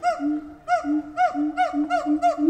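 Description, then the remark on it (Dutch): Monkeys scream in a loud, rhythmic series of about five piercing calls, each swooping up and down in pitch with a hooting, honking tone, one after another with no talking. “Apen maken apengeluiden.”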